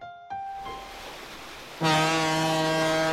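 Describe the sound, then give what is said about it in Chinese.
A large ship's horn blasts at sea in thick fog, in a deep, steady, sustained tone, loud and rich in harmonics, preceded by fainter higher horn tones. No voices are heard. “此时，耳边传来大轮船呜呜呜的汽笛声。”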